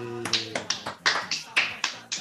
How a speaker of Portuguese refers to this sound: uma salva de palmas aí.